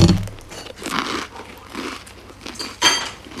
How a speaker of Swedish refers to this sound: Charmans eh, vegetariana toast. Ja, just det. Ha, ska vi ta varsin tugga då?